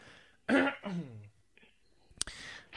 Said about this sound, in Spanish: Y es que el Apple TV, cuando tú navegas por contenido, voy a parar un segundo y voy a toser.